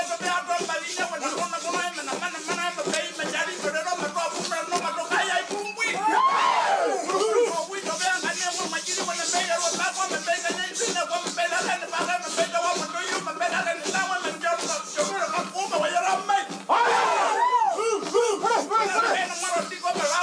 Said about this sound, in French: L'orateur est entouré par les hommes de son groupe de résidence qui le soutiennent par des chuintements rythmés, ponctuent ses énoncés par des cris et l'encouragent par des formules codées.